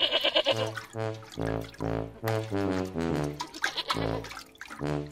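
Goats and sheep kept by a farmer for milking bleat over and over, a run of wavering, nasal calls that overlap and follow one another steadily for several seconds, fairly loud with no talking.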